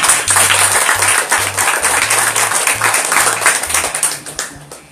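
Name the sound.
round of applause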